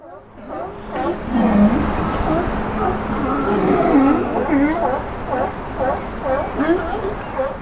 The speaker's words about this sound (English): The bellows and barks of sea lions, seemingly content, sprawling on a raft about 100 meters away from me. In the early evening sun, they look like the sultans of the sea.